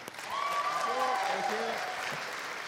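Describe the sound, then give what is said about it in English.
An audience applauds steadily for a few seconds, a dense wash of clapping, while a voice calls out over it with a drawn-out, sliding whoop. “Let's hear it for the king.”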